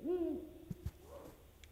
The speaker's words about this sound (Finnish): Kuunnellaan hei vielä ennen kuin pistetään linja kiinni, niin piirupöllön ääntä.